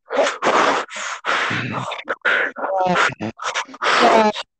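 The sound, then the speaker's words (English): A voice imitates intense, heavy gamer breathing: loud huffs and gasping breaths in uneven bursts, with a few strained grunts mixed in. “Maybe hear some intense breathing, gamer and, breathing.”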